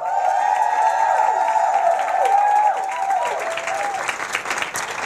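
Sustained applause from an audience, dense steady clapping with cheering or whistle-like tones over it, loud throughout the five seconds and thinning slightly toward the end.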